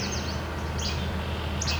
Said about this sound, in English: Okay, it's picking up the least flycatcher. This Chebek Chebek right away.